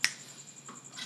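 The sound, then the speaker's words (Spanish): A cricket chirps steadily in the background, a thin, continuous high-pitched trill that stays faint throughout, with a brief sharp click near the start and no voices. “hay un grillo de fondo que no hemos podido erradicar”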